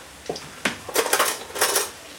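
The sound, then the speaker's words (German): A spoon scrapes and taps against a nonstick Teflon-coated pan while stirring scrambled eggs, in several short strokes, with a bright metallic clink among them and a quiet hiss in the background. No one speaks. “Ja, also ein bisschen drin rumstochern mit einem Messer. Oder besser mit einem Löffel. Sonst macht man ja die Teflonschicht in der Pfanne kaputt.”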